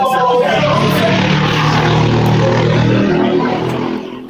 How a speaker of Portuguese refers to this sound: o motoqueiro deixou a gente surdo aqui.